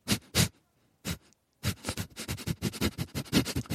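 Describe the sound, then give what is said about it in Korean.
A person imitates a dog's dismissive nasal snort: two quick huffs, a pause, a single puff, then a rapid run of breathy snorts, fairly loud. “콧방귀 소리 이런 이런 소리가 날까?”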